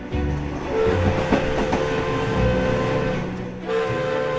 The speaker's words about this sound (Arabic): يصعد رجال البعثة على متن القطار مستأنفا رحلته حتى يصل محطته الأخيرة في مدينة هايكفيل